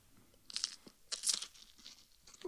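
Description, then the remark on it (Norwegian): Crisp crunching as a man bites into a whole hot habanero pepper, part of the stem included: two loud crunchy bursts about a second apart, followed by softer chewing. No one talks. “få høre knasket.”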